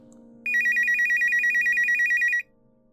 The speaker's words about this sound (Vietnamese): tiếng chuông điện thoại reo nó rút điện thoại ra